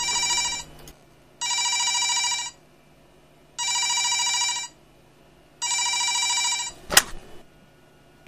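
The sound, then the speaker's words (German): A telephone rings four times at night in a steady pattern of long bursts separated by pauses, loud, followed by a brief clattering click as if the receiver is picked up. “Hier rufen in der Nacht stets Männer an, die eine gewisse Caroline sprechen wollen.”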